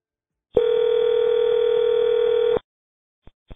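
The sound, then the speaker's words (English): A single steady telephone ringing tone from a call placed to a contact in the Dixon area sounds for about two seconds, loud, then cuts off, followed by a couple of faint clicks on the line. “Lisi started calling his contacts from the Dixon area.”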